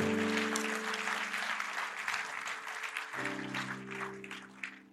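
An audience applauds God steadily for five seconds at a church, a dense wash of clapping over sustained low organ or keyboard chords that shift partway through, with no voices standing out.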